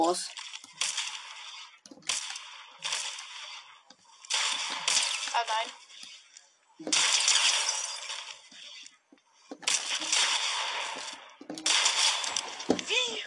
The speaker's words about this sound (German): Drei Schüsse mit Revolver, ein Pumpshot. Bam.